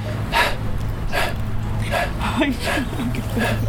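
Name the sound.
voice imitating heavy panting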